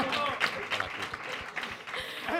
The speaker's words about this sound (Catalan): Bueno, un aplaudiment també, vull dir-te.